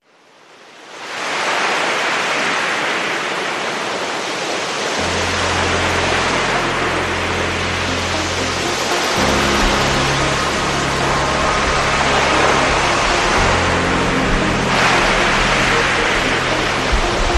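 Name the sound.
sea waves breaking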